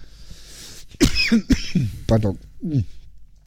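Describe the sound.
A person who has choked on something coughs several times in quick succession, a series of sharp, raspy bursts, then briefly speaks a word afterward.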